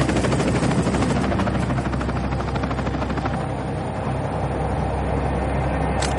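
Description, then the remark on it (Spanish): A helicopter takes off, roaring with a steady, loud rotor chop and heavy engine rumble throughout, the pitch and intensity shifting slightly as it lifts away. No voices are heard. “El helicóptero despega.”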